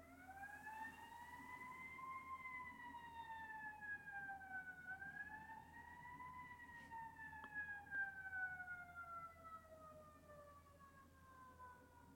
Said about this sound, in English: I'm going to pause a minute while those sirens pass.